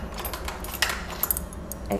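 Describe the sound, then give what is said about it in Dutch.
Metal cutlery clattering and clinking as a tray is emptied, a steady jumble of light rattles punctuated by a few sharper, bright clinks, fairly quiet throughout. “ga een bestekbakje leegmaken.”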